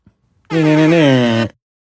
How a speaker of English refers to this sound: wonder how many of our listener love the fact that we do that, the air horn thing.